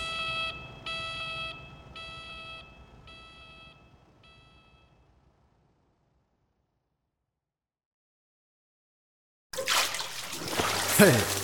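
After a fading run of bright electronic beeps and a long silence, a sudden, loud splash of foul-smelling water thrown into a person's face bursts in and keeps sloshing briefly.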